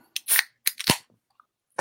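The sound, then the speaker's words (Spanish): A plastic water bottle being twisted open: two short bursts of sharp, crackling clicks from the cap seal, followed by a single faint tick, with no talking. “Oigan, perdón, voy a abrir mi botella de agua, ¿eh?”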